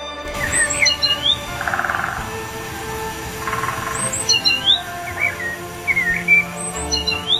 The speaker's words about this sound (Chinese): 啄木鸟飞来了